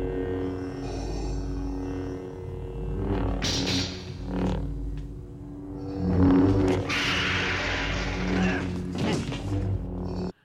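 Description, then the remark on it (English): Luke's lightsaber: a low, steady hum runs throughout, punctuated by sharp crackling swings and clashes that flare into bright bursts of noise before settling back into the continuous drone. “Yeah, it's got a, it's got a high pitched kind of pew, when it's coming out of the hilt, but it does have that low hum continuously through it.”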